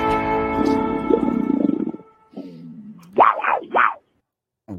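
A big cat roars, loud and close: a long, low rumbling growl followed by two rising, snarling bursts, then silence. No one speaks.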